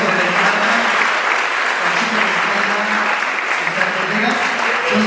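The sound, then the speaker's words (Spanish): Steady, dense, loud applause from an audience for the staff fills the whole stretch, with a voice talking faintly underneath at points. “Un aplauso por de staff.”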